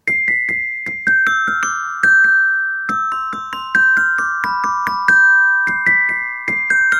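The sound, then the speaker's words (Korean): A school bell chime plays a bright electronic melody of struck, ringing notes in a steady rhythm, each tone sustaining as the next begins. It is clear and fairly loud, with no voices. “학교 종소리가 어떤 게 있지 또? 아, 학교 종소리.”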